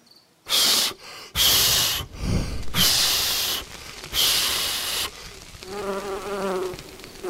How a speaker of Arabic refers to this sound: يوه من اين اتى هذا الدبور اللعين